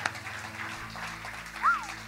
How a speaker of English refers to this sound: I'll clap for that one.